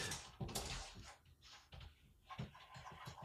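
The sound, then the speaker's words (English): A cat named Butch claws at a closed bedroom door, trying to get out, producing a series of rough scraping and rattling bursts in an irregular rhythm, muffled and fairly quiet in the background. “He is trying to claw his way through my bedroom door to get out here and make an appearance on the show.”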